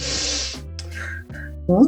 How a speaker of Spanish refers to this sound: ¿Cómo calmo el cuerpo? La respiración, así.